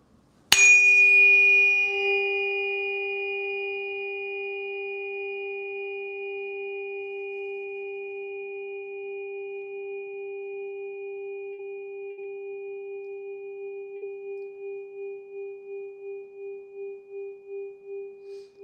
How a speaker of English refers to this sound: now we're going to move over to the right foot and keep playing some tones there.